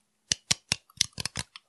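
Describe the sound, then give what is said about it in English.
A can of premixed drink being handled before being opened, giving a quick series of about six sharp metallic clicks and taps in an uneven rhythm, with no voices. “That is the sound of a can ready to be ripped open by my strong man hands.”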